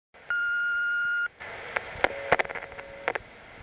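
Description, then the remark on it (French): A steady electronic beep holds for about a second, then a quieter stretch of sharp mechanical clicks and faint tonal blips follows as the button on an answering machine is pressed to play back a message. “Je me dirige donc très rapidement auprès de mon répondeur, j'appuie sur le bouton et j'écoute le message.”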